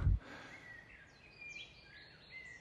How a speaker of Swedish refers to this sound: Och här är så mycket fåglar så det är så fint.